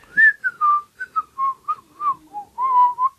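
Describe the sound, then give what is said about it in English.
Someone whistles a short, wavering tune of about a dozen clear notes, some brief and some held, fairly loud with no talking. “If you whistle, they can't see you.”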